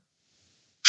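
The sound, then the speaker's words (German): A single sharp, loud sneeze bursts out at the very end, after a stretch of near silence. “Gesundheit. Danke.”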